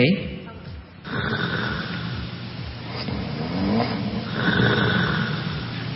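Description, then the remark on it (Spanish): A man snoring loudly, a low rough rattling drone that runs almost continuously, dipping briefly near the start in a sleep apnea pause before swelling back into heavy, throaty breaths. “Dan mandó el ronquido de …, que es su pareja.”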